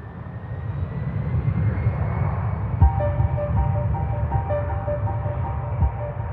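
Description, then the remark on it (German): A steady, loud low roar of a jumbo jet airliner engine, the jet flying to Las Vegas carrying big cats, with a faint high whine and tones layered on top, continuous throughout with no voices. “verladen ihre angeblich bühnenverliebten und augenscheinlich extrem flugreiselustig veranlagten Raubtiere in die Jumbo Jets und fliegen ihrem neuen gemeinsamen Engagement in Las Vegas entgegen.”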